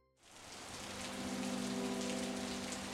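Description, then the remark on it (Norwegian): Steady rain pours down with a gusty, windy wash in late November in the exercise yard of Eidsberg prison, fairly loud, fading in at the start and continuing without pause, with a faint low hum underneath and no voices. “Det regner og blåser surt.”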